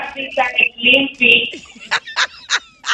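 A chicken squawks and clucks, a few drawn-out harmonic cries followed by four short, evenly spaced clucks, loud and clear with no talking.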